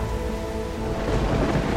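A dense, steady roar of heavy rain and wind with a deep rumbling low end, a storm at sea with huge waves battering down, constant and loud throughout with no voices.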